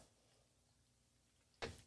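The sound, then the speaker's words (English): After a stretch of near silence, a door is opened for a dog, with one short, sharp clunk of the latch, fairly loud against the quiet. “My dog doesn't like when doors are closed, and she'll scratch on the door, and then she'll just look at me.”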